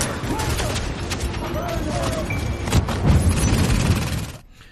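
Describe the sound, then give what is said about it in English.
Gunfire from a video game set in New York rattles in a loud, dense barrage of sharp cracks and thuds layered over a busy battle mix, then cuts off abruptly just before the end. “Uh, gunfire, too late for the rest of the country, hmm.”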